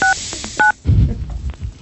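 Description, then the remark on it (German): Two short, loud touch-tone beeps from a phone keypad as a number is dialed, each a crisp dual-pitch tone, followed by a burst of low rumbling noise and muffled handling sounds. “Äh, nie bei Leuten anrufen, die gerade selber telefonieren.”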